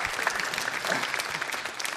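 Audience applause for a participant fills the whole stretch, a dense steady patter of many hands clapping at an even, fairly loud level with no voices over it.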